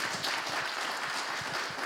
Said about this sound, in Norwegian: Den fortjener en applaus.